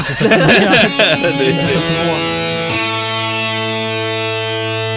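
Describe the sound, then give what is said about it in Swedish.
A short distorted electric guitar jingle: a busy, gritty riff for about two seconds, then one loud chord that rings out and sustains to the end. No voices. “Det var alltså en distad gitarr som gjorde dagens ekotonerna.”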